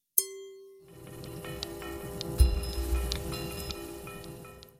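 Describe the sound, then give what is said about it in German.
Two wine glasses clink together in a toast with a bright, ringing tone that hangs in the air, followed by a low, busy background rustle and a few faint, scattered clinks. “Den dritten Teil meiner Sicherheitsprüfung werde ich daher sehr gerne jetzt wiederholen. Prost!”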